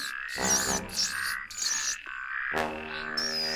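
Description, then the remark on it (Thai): A small frog by a stream at the edge of a forest croaks in several loud, throaty bursts with brief pauses between them and faint high chirps drifting above; no one speaks. “หนูแก่ต้องการที่จะข้ามไปยังฝั่งตรงข้าม จึงเข้าไปขอความช่วยเหลือจากกบตัวน้อยที่ริมลำธาร”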